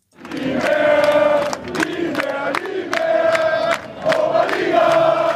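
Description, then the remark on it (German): Eintracht Trier football fans celebrating promotion in the Moselstadion in Trier, Rhineland-Palatinate: a loud, sustained roar of over 8,000 voices chanting and shouting together, with rising, rhythmic bursts of cheering throughout, after a 1-1 match against the Stuttgarter Kickers. “So klang das gestern bei über 8000 Fans im Trierer Moselstadion.”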